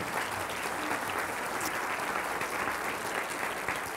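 A church audience claps steadily in praise and glory to the Lord Jesus Christ, a dense, even wash of many hands applauding at a constant loudness throughout, with no voices standing out above it.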